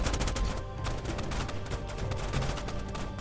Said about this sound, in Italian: Ma un minuto dopo la mezzanotte, mentre la stampa è ancora presente intorno all'aeroporto, quattro mezzi blindati entrano a tutta velocità dentro la zona recintata, seguiti da alcuni furgoni della polizia. È un attimo e lo scontro a fuoco ricomincia.